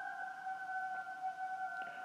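A shrill signal announcing that the train is about to depart sounds as one unbroken, steady two-tone blast, loud, holding the same pitch for the whole stretch with no voices over it.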